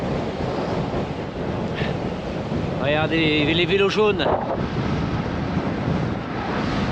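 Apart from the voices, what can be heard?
strong wind blowing outdoors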